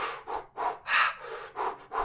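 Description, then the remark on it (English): A voice imitates a woman's heavy breathing: a quick run of loud, breathy huffs, about six in two seconds, rhythmic, with no words spoken. “and she was breathing heavy,”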